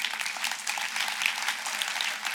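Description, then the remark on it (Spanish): A church audience breaks into steady applause for the Lord, a dense, continuous patter of many hands clapping at an even level throughout, with no voices standing out. “Los Hombres dispuestos, mira, lo opuesto, sí, un aplauso al Señor.”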